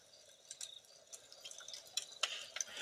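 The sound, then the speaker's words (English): A crackling campfire, with irregular sharp pops and snaps scattered over a soft hiss, fairly quiet and steady, with no one talking. “Well, folks, hopefully that campfire sound really puts you in the mood for tonight's story.”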